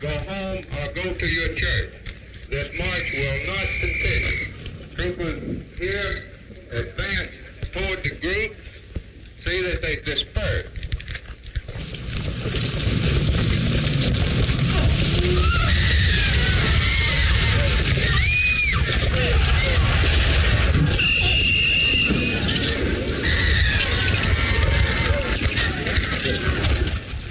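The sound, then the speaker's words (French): Old archival recording from 7 March 1965 of a march meant to be peaceful, going from Selma to Montgomery, Alabama, erupting into violence: voices at first, then a loud, chaotic roar of crowd noise with screams and shrill cries rising over the din. “Alors, ce que vous entendez là, c'est tout simplement euh, ce qui est censé être une marche pacifique allant de Selma jusqu'à Montgomery, dans, en Alabama.”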